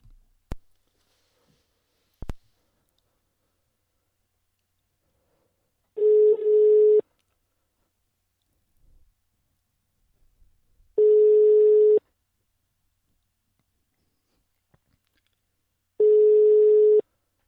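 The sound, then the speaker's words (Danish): A telephone ringback tone sounds three times while a call is placed, each steady electronic tone lasting about a second, spaced roughly five seconds apart, preceded by a couple of faint clicks. “vi får ringet til Balum, og så hører vi, hvordan det står til.”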